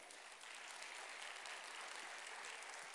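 Steady applause from a crowd fills the space for a few seconds, dense and continuous with many hands clapping at once, fairly loud and without any talking over it, applauding in praise of the Lord during a sermon.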